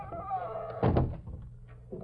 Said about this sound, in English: Come on in. Close the door behind you.